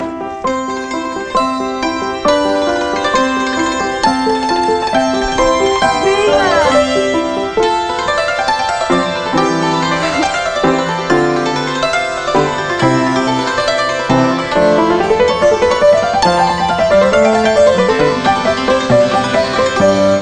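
A santur, its strings spanning three octave ranges, with yellow strings giving low notes and white strings middle and high notes, plays a quick, flowing melody with bright hammered-string notes that ring and overlap, running up and down in rapid rippling patterns at steady volume throughout.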